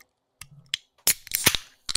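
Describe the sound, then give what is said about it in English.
Sharp clicks and a tab snap as cans of Doctor Ugly soda are cracked open, followed by a loud hissing burst of fizz, with a couple of quick metallic pops; no talking. “we'll crack these bad boys open.”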